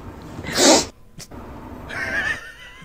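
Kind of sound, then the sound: human body sound, sniffling and sneezing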